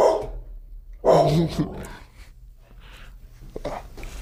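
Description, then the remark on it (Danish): A dog barks twice in a studio, a short yelp and then a louder, fuller bark, followed by softer snuffling and faint whimpery noises. “Og det er også derfor, hun gør lidt.”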